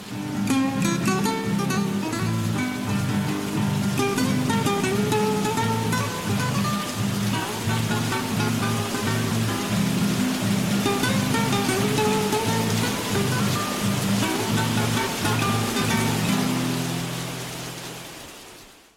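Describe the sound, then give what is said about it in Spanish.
Steady rain falling continuously, a dense hiss of drops with a soft rumble, blended with sustained music that plays throughout before fading at the end. “Escucha, Cleofe, va a llover.”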